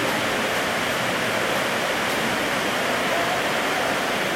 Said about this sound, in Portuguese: Eu acho que está muito alto e está atrapalhando de ouvir, né? Daria para tirar o, o ventilador?